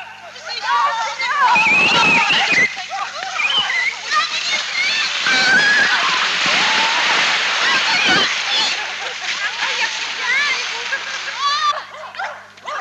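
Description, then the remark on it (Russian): Loud splashing and churning water as people run from a steam-bath tent and plunge into a lake, nearly continuous for several seconds, with excited voices and shouts mixed through the commotion. “Окунувшись, беремся за мыло, мочалки и снова в воду, потом опять под шатер.”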